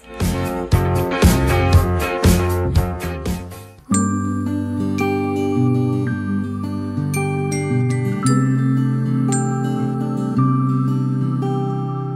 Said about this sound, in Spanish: Vamos con la canción … de ….